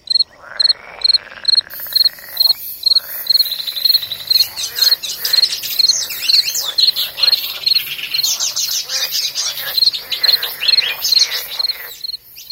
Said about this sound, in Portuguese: Vou juntando os sons, sobrepondo cada um, como esse grilo sozinho, que eu coloco em companhia de outros animais de uma floresta.